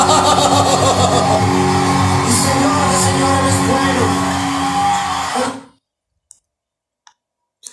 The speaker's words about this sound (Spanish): Gracias, gracias por la ovación.